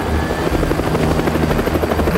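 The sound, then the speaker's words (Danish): A helicopter flies, its rotor thumping in a rapid, steady chop over a loud engine whine, filling the whole stretch with no voices present. “Hvordan har de bare lige lynhurtigt været ude og skaffe en helikopter?”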